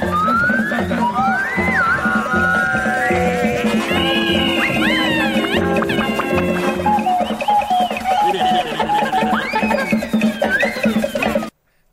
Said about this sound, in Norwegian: Det eneste vi har igjen, er ukas klipp. Skal vi bare hoppe over på det? Skal vi bare spille jingeren her?